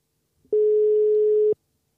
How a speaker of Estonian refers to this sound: proovime talle helistada kõigepealt, ma võtan oma telefoni välja vaatame, võtame siit Indreku numbri